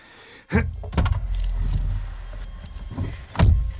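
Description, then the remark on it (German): A car door shuts with a solid thud as the vehicle is about to drive off, followed by a low engine rumble and a few more knocks, then another firm thump near the end. “Und nun schließt die Tür. Wir fahren jetzt los.”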